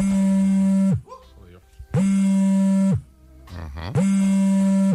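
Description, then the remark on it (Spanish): A vibrating alarm clock made specifically for women buzzes loudly in three steady one-second bursts, evenly spaced, with a harsh droning tone and faint murmuring sounds in the pauses between. “Efectivamente es una vibración, pero no de un móvil. Es un despertador específico para mujeres, para despertar pues con alegría en el cuerpo, ya sabes esto te refieres.”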